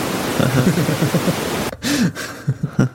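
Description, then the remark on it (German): Dense, steady hiss of filtered noise like a heavy rain shower fills the first half, with a voice talking over it, then cuts away abruptly leaving the voice and a short laugh. “Jetzt ist nur ein starker Regenschauer.”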